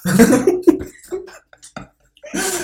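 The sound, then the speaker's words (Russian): Loud sputtering coughs from someone choking on a mouthful of wine, a rough burst followed by a few smaller hacks, a brief pause, then another harsh cough. “говори такие вещи, когда я не с полным ртом пью вино, хорошо?”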